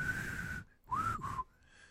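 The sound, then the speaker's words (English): A person whistles a jaunty march melody, a sustained note followed by a couple of short sliding phrases, with breathy air noise and no talking. “I can't whistle anymore.”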